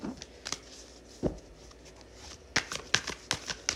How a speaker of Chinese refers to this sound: 洗牌